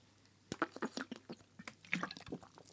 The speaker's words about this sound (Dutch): Ik neem even een slok.